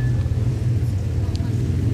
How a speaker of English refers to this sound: A lot of traffic right now. You know, just a typical bustling Monday morning.